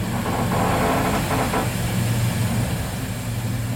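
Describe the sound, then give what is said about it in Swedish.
A train in the Alps rumbles steadily through curves among high mountain peaks, along the Salzach river valley, with a low, continuous roar, metallic rattling and a brief squealing screech of wheels on a curve, with no one speaking. “Tåget protesterar i kurvorna längs med de allt högre bergstopparna.”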